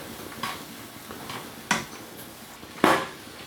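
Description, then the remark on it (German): Scattered clinks and knocks of dishes and utensils at a kitchen sink during cooking, a few sharp hits spaced irregularly over a quiet background, the loudest near the end. No one speaks. “das war nur die Spüle, keine genau, Angst”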